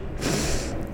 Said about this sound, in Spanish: Respiras dos veces, este, fuerte, y luego sacas el aire. Suena así